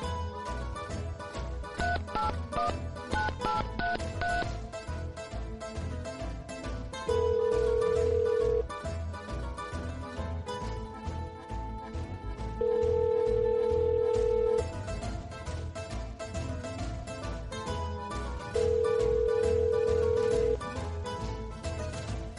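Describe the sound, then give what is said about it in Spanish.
A phone call being placed: busy clattering at the start, then three long, steady ringing tones of about two seconds each, evenly spaced, heard over a dense, noisy background. “Ahora, mira, voy a llamar. vamos a llamar.”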